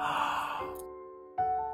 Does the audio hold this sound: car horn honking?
no